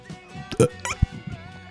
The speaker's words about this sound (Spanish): Ella, ella va a soñar con nuestros eructos, entonces.